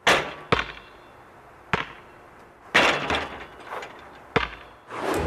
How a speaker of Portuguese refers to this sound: É isso mesmo, é alguém a jogar basquete.